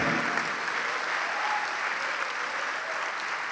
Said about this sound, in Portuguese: Ô oh, glória, vamos aplaudir mais. Vamos aplaudir mais.